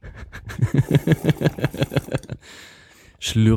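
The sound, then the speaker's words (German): Someone drinks a glass of water in quick, rhythmic gulps, followed by a breathy exhale and the start of a voice. “Wir hören jetzt heute. mal zu, wie … ein Glas Wasser trinkt.”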